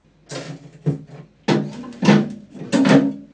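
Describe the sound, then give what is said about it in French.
A knock of packaging inside an open refrigerator, followed by a few short bursts of rummaging and rustling, irregularly spaced, as someone searches for something and then takes a food item. No one speaks. “Bruit de choc d'emballage, puis silence complet de quelqu'un qui cherche quelque chose, puis prend un aliment.”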